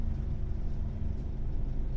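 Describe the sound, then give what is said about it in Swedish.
Steady, low engine rumble fills the inside of a moving bus, a continuous droning hum with no breaks and no voices, fairly loud. “Alltså det som pågår i en annan del av världen samtidigt som jag sitter här och pratar på en buss.”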